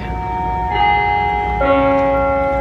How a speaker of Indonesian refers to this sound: Udah berapa kali nih ya Bel di video kita